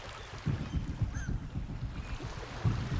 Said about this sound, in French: le bruit d'une mouette, les bateaux, le clapotis des vagues sur la coque.